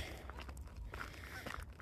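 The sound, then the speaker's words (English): Several soft footsteps crunch along at an unhurried walking pace over a steady low outdoor rumble, fairly quiet, as a person on a coffee walk passes a pond about a quarter to half a mile from home. “I'm getting my caramel ribbon crunch coffee walk in as we walk by the pond about a quarter mile to a half mile from my house.”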